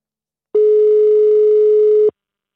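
A single steady telephone ringing tone, a flat electronic hum lasting about a second and a half, starting and stopping abruptly, clear and fairly loud with no voices.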